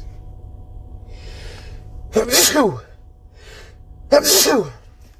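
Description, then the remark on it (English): Two loud sneezes about two seconds apart, each preceded by a soft, breathy inhale, with a low steady hum in the background. “Leave the sneeze on there.”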